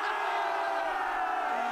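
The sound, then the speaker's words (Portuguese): A large crowd cheers and applauds in a steady, continuous roar that fills the whole moment, with no individual voice standing out. “Obrigado, não precisa de aplauso. Não, eu não quero aplauso.”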